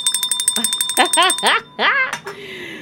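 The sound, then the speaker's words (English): A bell rings in a rapid, buzzing series of metallic strikes, steady, while a person starts talking over it partway through. “Oh, what's wrong with my bell?”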